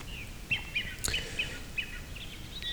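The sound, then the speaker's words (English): Faint capercaillie calls, several birds coming into the area: a handful of short, high chirps spaced irregularly, with one sharp pop in the middle, against a quiet, hushed outdoor background with no talking. “From this, I have gathered a list of directions and times, and I hope to be able to work out how many birds have come into the area that I can hear.”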